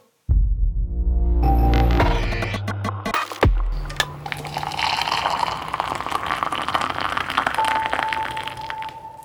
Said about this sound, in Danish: Og inden vi sådan øh, går i gang, så skal vi lige skåle i vores kaffe. Du er mm. i dagens anledning taget lidt te. Ja, det har jeg. Mm, så lad os gøre det. Skål. Skål.